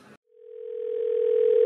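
A steady, single-pitched telephone tone hums for over a second, gradually growing louder before cutting off with a sharp click, just after a brief snippet of voice.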